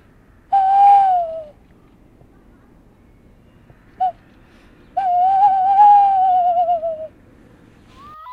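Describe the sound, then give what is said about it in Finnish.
A tawny owl hoots clearly: a drawn-out hoot, a pause, a brief single note, then a long quavering hoot, heard alone against a quiet, faintly noisy night background. “miten hän perehtyi lehtopöllöjen ääniin ja opetteli jopa matkimaan niitä”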